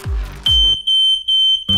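A loud, piercing smoke alarm sounds in a rapid series of high-pitched electronic beeps, preceded by a couple of heavy low thuds, with no one speaking.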